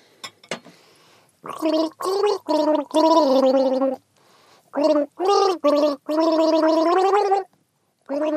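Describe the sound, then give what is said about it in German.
Someone gargles a tune, bubbling water shaping a series of pitched phrases with short pauses between them, fairly loud, with no talking. “Gurgelwurgel.”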